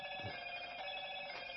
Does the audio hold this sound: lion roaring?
no